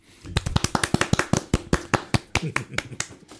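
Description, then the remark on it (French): A short burst of applause: sharp, crisp hand claps in a quick, slightly uneven rhythm, roughly twenty of them, fairly loud, fading a little toward the end. “Là, vous, vous, applaudissez, j'espère”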